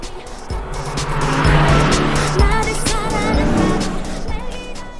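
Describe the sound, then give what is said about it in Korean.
A car engine roars loudly, revving up as it accelerates to catch up with the car alongside, with a rising whine climbing in pitch over several seconds amid steady road noise. “DJ 천이가 옆차를 따라잡아 보겠습니다”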